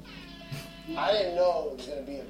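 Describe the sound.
A person imitates an air horn with their voice: one loud, drawn-out nasal blare, wavering in pitch for about a second before trailing off.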